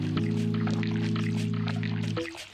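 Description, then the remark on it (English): Rainwater overflow pours steadily into a cascade of open-air holding basins in a square, a continuous splashing rush, while a low droning hum runs underneath and cuts out just before the end, leaving the water sound alone. “Instead of washing straight down the gutter, the overflow of rain is collected in a cascade of open air holding basins filling the square with water.”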